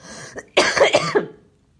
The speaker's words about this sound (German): Hast du nicht gehört? Den Husten eben.